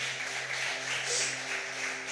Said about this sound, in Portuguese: Aplauda ele, louvado seja o nome de Jesus.